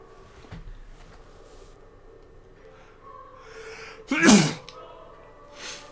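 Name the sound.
sneeze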